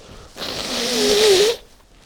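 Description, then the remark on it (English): A single, forceful nose blow of about a second into a blue paper towel roll: a breathy, rushing burst with a faint honking tone. Quiet before and after, no talking. “I'm very sorry about blowing my nose all the time.”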